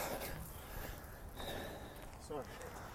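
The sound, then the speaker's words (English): Heavy, labored breathing, loud rasping breaths with a breathy, wind-like hiss, from a person walking up a big hill. “So if I'm breathing heavy, I am happy to talk to you, but I'm breathing heavy because I'm walking up a hill.”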